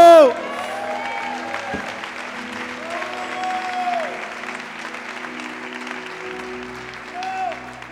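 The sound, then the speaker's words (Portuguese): An audience gives a shout to the Lord and breaks into sustained applause with cheering and shouting voices mixed in, steady and dense throughout, after a brief loud vocal outburst at the start. “Dê um brado ao Senhor e aplauda.”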